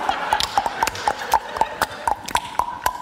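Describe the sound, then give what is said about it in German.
A voice imitates a horse's clip-clopping hooves with a quick, very even run of about a dozen sharp clicks, moderately loud, with no talking. “Was war das, ein Pferd oder was?”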